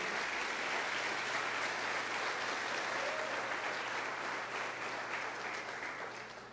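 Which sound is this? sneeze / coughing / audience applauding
audience applauding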